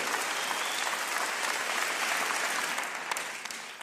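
Sustained audience applause, a dense wash of many hands clapping at steady loudness before thinning and fading out over the last second, with no voices audible.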